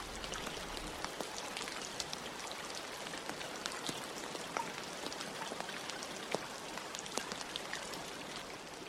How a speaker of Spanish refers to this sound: Puedes escuchar a lo lejos la lluvia. Incluso puedes recordar cómo es el aroma de la tierra cuando llueve.